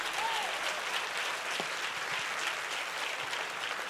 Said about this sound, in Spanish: Si tú lo crees, tú aplaude y si no, no.